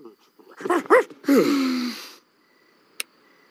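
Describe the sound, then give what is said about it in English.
A male dog coming into the room gives two quick, sharp yips, then a longer breathy whine that trails downward, followed by a brief pause and a small click. “wasn't that great when the dog came in here?”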